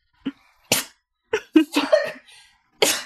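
A run of sharp, explosive sneezes, about five bursts close together, with a quick cluster in the middle and a final loud one, with no talking.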